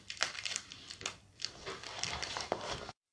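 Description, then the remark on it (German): Crinkling and snipping of a plastic card pack wrapper as someone cuts it open with scissors after it could not be opened by hand, a run of sharp rustly bursts over about three seconds, with no talking. “Okay, äh, mein Bruder schneidet es gerade tatsächlich mit einer Schere auf.”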